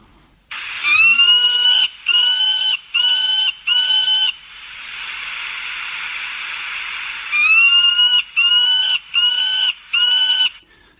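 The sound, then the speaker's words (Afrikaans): A peregrine falcon calls loudly: two sets of four harsh, grating cries separated by one long, drawn-out screech, with no voices. “Dit is die swerfvalk, een van die vinnigste valke op aarde.”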